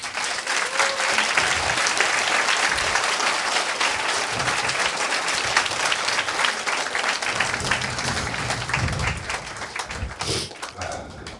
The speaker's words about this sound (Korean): 두 분한테요, 박수 좀 쳐주세요.